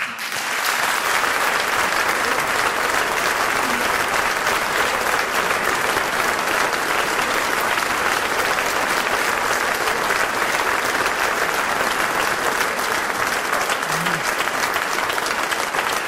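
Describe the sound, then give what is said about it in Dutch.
Warm, sustained applause from a theatre audience for puppeteer Jozef van den Berg, a dense steady wash of clapping hands that stays loud and even for about sixteen seconds, with no voices standing out. “Uw warm applaus voor Jozef van den Berg.”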